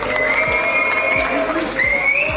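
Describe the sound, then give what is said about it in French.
A crowd cheers and claps loudly for a DJ in a dense, continuous roar for a couple of seconds, with high, drawn-out whoops or whistles rising above the noise. “Du bruit pour monsieur … …, lourd, lourd, lourd, lourd, lourd, légendaire, légendaire, premier épisode, c'est lourd.”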